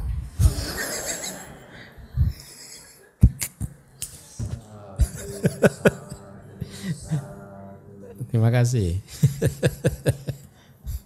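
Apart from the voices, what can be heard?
audience members coughing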